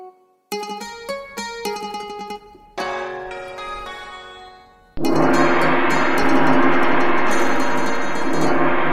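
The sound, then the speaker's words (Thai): A monastery bell is struck about eight times in quick, uneven succession, then left to hum and fade before a loud, dense, sustained clangor swells in and holds, signalling the monks to gather. No voices. “ฝ่ายพระสงฆ์ในอารามพอได้ยินระฆังและกรองสัญญาณ ก็พร้อมกันไปที่โบสถ์”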